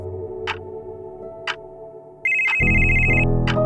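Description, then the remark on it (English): A telephone rings with a bright, steady electronic tone over a rhythmic ticking, like a clock, with a low hum swelling beneath as the ring sounds fairly loud. “The phone rings.”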